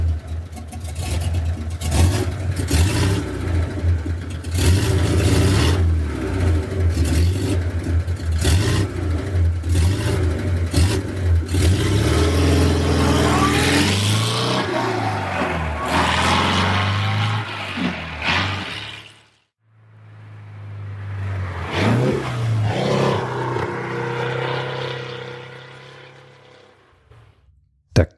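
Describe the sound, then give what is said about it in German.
A Porsche 356 sports car, the first Porsche ever built in series production, revs its engine loudly, its low rumble swelling and falling in repeated bursts, then cutting out briefly before firing up and revving again. “Das war ein Porsche. Und zwar der erste Porsche, der überhaupt jemals in Serie gefertigt wurde. Der Porsche 356.”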